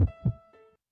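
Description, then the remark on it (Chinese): A baby son's strong heartbeat on an ultrasound monitor during pregnancy: three quick, low, muffled thumps in an even rhythm, with a thin electronic hum running beneath them, and no voices. “这是我们儿子的心跳声，很强壮，好神奇呀！”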